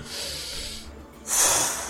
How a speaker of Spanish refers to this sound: Y ven como toma una respiración.